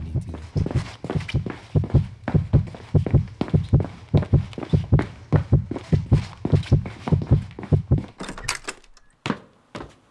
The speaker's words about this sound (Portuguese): Deixo-me só andar por aí à deriva, ouvir o som dos meus passos e da minha pulsação, cada vez mais